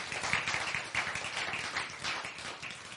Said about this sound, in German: Also nochmal ein ganz, ganz dickes Dankeschön und Applaus.